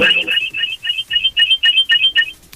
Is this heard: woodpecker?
no